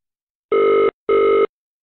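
Two steady electronic ring tones of an outgoing phone call to a building's reception, each about half a second with a short gap between, clear with no voices.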